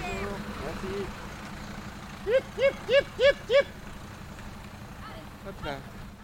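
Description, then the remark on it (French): A large truck engine rumbles low and steady throughout as it passes on a road with other cars, while a man calls out five short, rising cries in quick succession over the drone. “on croise des voitures et un gros camion.”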